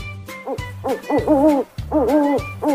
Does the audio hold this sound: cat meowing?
no